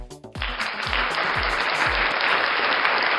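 Enthusiastic applause bursts in after a brief moment and holds as a dense, steady wash of clapping, with a few deep rhythmic thumps underneath early on. No one speaks.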